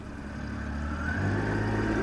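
The engine of a small metal ferry boat returning from an island runs, a steady low rumbling drone with a faint hum above it that holds even and unbroken throughout, with no voices.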